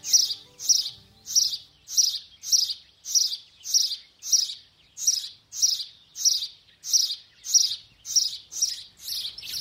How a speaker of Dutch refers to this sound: op de Veluwe bij het Gelderse buurschap 3 om te luisteren naar zijn verhaal achter het geluid van de huismus.